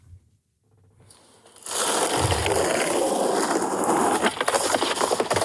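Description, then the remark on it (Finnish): After a brief quiet start, a skateboard's wheels roll in with a loud, gritty, sustained scrape, followed by a few clattering knocks near the end as the board slips and the skater falls hard on wide stairs covered by a very thin, extremely slippery layer of snow. “Ja verisliperi ja siinä siis paukki skeittaamassa, mutta perseilleen levähtää”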